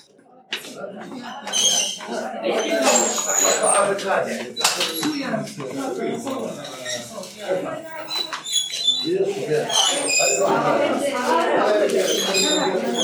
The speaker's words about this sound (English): sound that you hear is the sound of the wheel that they are using to pull up with a rope the water from the well with a bucket. It's a bit squeaky. I guess it would need a little bit of oil.